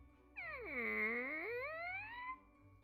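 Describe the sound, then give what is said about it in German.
A voice imitates a little door creaking open as the fifth little window is opened, a single drawn-out squeaky whine that dips low, then slowly rises in pitch over about two seconds, heard alone. “macht das Geräusch, weil wir jetzt das öffnen und schauen, was drin ist.”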